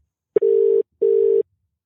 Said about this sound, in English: This is the part where the phone rings.